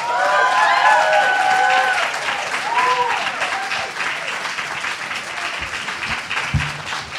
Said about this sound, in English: But for now, I'm going to invite you to give a big, big cheer for our amazing young people.